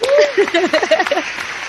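A short burst of audience applause for a Huawei trainer from the eastern zone being introduced, a dense steady patter of many hands clapping, with a few voices calling out over it.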